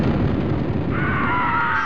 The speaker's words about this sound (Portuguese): Ah, meu Deus do céu, o que foi isso? Amor, algo acaba de acontecer aqui. Não sei, parece um avião, alguma coisa que caiu, explodiu.